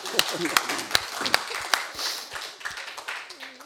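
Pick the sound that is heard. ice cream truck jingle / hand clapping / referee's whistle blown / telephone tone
hand clapping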